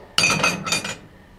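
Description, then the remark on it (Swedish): A spoon drops into a mug standing on a sink counter with a sharp ringing clink, then rattles and spins against the sides for under a second before settling into silence. No one speaks. “så hör jag hur någon, alltså vi tar det som ett exempel här, det, att en, en mugg står på en diskbänk och någon släpper ner en sked så här.”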